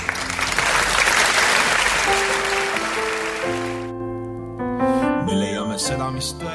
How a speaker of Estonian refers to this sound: Te kuulate Kuku Raadiot daamid ja härrad, Eesti Kontserdi saade. aplaus.